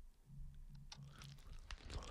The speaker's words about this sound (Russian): … громко жует